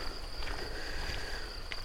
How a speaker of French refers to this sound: On entend les grillons.